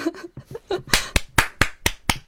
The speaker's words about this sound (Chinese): 好，鼓掌。